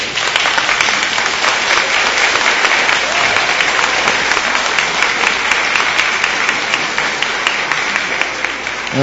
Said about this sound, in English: And uh, before we end the show, we want to give everybody a nice round of applause.